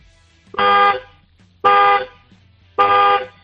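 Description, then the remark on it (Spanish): The horn of a 2018 car honks three times, each blast about half a second long with short, even pauses between them. The honks are loud and steady-toned, with no one talking. “Pues venga, sin más dilación, dale tres toquecitos al claxon, a ver cómo suena.”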